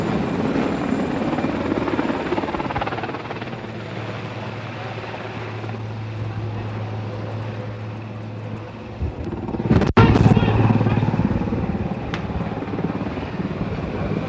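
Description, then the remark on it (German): A helicopter roars steadily overhead with a low droning hum, loud and continuous, returning to drop gas grenades during a street protest on Industriestraße, joined by a sharp crack near the end amid general outdoor commotion. “Jetzt kommt ein Hubschrauber kommt wieder und schmeißt wieder Gasgranaten.”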